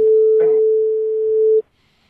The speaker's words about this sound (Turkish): Ee, o İsmet Bey'in düdüğüydü. O hep çalar. Merak etmeyin. Siz devam edin.